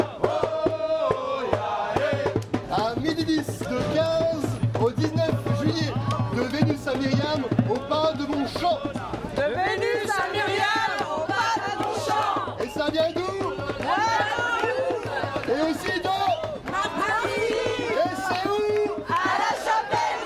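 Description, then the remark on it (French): A dense, lively festival parade crowd fills the street with overlapping shouts, chanting and cheering voices, steady throughout, with a constant low hum beneath the festive commotion as the parade winds through the town. “Alors évidemment, le festival a commencé et quoi de mieux pour s'en rendre compte que d'écouter le son de la parade qui déambule dans la ville.”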